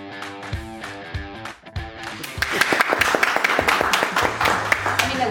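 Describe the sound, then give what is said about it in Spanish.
A short musical passage with sustained tones gives way to a burst of audience applause, many overlapping claps, loud and dense, continuing over the music until the end. “aplaudir, yo aplaudo”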